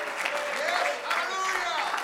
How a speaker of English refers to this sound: If you believe it, you ought to clap your hands all over this building.